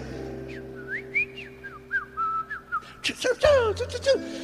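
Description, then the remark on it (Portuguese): A person whistles a quick series of chirpy, warbling notes imitating birds singing in the morning at about 5:30, with sliding tones and short trills, fairly loud, ending in a brighter burst of rapid chirps. “Os passarinhos já acordam cantando, irmão.”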